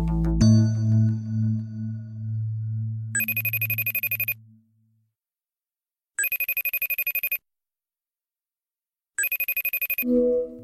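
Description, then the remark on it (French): A telephone rings three times in evenly spaced, buzzing bursts, clear, after a low musical tone fades out; the line is then picked up for a call to a Le Monde photojournalist. “Euh, je t'appelle parce que tu as pu suivre pour Le Monde euh, l'enterrement d'une victime du coronavirus.”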